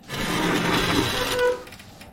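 A wooden vanity scrapes across the floor in one continuous, rough grinding drag lasting about a second and a half, fairly loud, with no voices.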